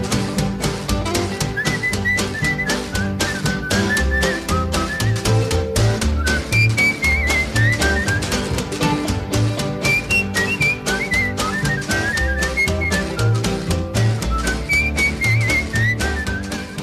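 A buzzy kazoo carries a wavering, sliding melody over a steady blues band with a thumping bass and percussive rhythm, playing loudly and continuously without any voices.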